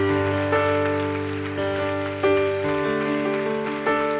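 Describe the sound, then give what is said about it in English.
A church audience claps continuously to give glory to God, a dense, steady patter of many hands blending over sustained music with held chords and periodic accents. No one speaks. “Хайде хора, ръкопляскайте.”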